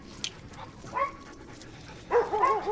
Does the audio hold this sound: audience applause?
no